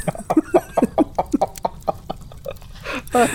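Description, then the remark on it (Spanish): A turkey gobbles in a rapid, bubbling burst of repeated throaty notes, loud, ending with a couple of rougher, drawn-out calls. “¡Ahí viene el pavo!”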